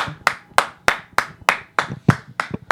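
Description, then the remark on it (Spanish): Steady hand clapping, about nine sharp claps in an even rhythm, fairly loud, with no talking over them. “Un aplauso.”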